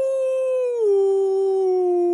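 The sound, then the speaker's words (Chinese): A single sustained howl from a tall wolf, heard from a valley in the wild, a steady mid-pitched tone that glides down partway through and then holds level until it ends. It is loud and clear, with no voices. “草丛里窜出一匹高大的狼”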